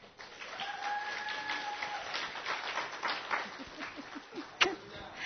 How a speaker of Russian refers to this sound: И под ваши аплодисменты